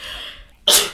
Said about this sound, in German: Ich muss niesen, kurz Moment.